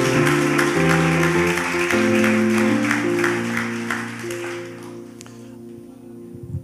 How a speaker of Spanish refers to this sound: Vamos, denle un aplauso fuerte a Dios.